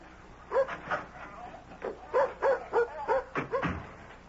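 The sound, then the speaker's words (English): A dog gives a quick series of short, high barks and yips, about ten in a row with brief pauses, moderately loud, with no talking. “may I take the dog down to the beach?”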